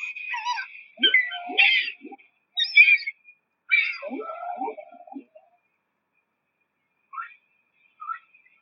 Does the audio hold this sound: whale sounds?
yes